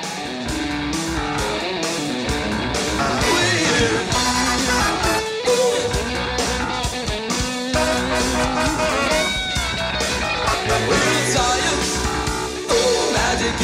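A live cover band plays an energetic new wave song, loud, with steady driving drums, bright synth and guitar lines filling the mix continuously throughout.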